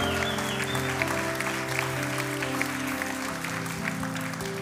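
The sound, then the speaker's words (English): A crowd at a worship service claps, stomps and cheers steadily over sustained organ-like music, the applause dense and continuous, with scattered whoops rising, full and reverberant. “Clap right here, right here, right here, right here, right here in the back over there. Stomp, shout, cheer.”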